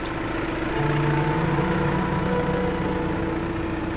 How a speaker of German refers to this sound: Und da fuhr an dem Tag gerade ein Trecker übers Feld, also unter den Solarmodulen durch, um den Boden vorzubereiten, weil sie nämlich zu dem Zeitpunkt bald äh, dort Schnittlauch aussehen wollten.